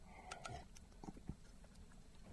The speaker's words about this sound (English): I'm just going to have a quick slurp of water, so bear with me one sec.